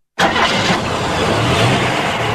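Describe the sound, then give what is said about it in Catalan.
A car engine abruptly roars to life after a moment of silence and keeps running loud, its pitch climbing briefly as it revs. No voices. “Cotxe.”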